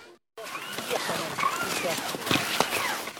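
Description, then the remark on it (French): Climbing skins hiss and swish over groomed snow in steady, rhythmic strides during an evening ski-touring ascent with 52 participants, fairly loud, with faint voices murmuring in the background. “Le bruit qu'on entend, ce sifflement, ce sont les pots de phoque qui glissent sur la neige damée.”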